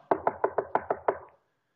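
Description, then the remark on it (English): Seven quick, evenly spaced knocks rap on a wooden door, each one sharp and solid, before the sound stops abruptly into silence. “Maybe they're knocking on doors.”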